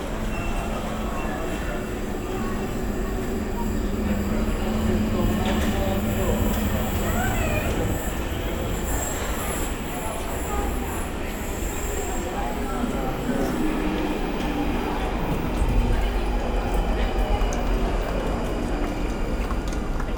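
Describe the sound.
An underground tube train rumbles steadily along, its loud, continuous roar filling the space with occasional metallic squeals and rattles, heard from inside a carriage with faint voices beneath the noise.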